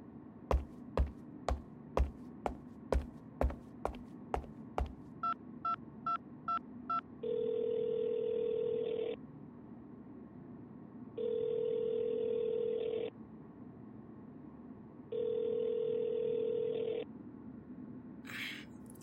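A string of sharp, evenly spaced clicks, then four quick dialing beeps, followed by three long ringing tones separated by pauses, as a borrowed phone is used to make a quick call in another room, clear with no one speaking.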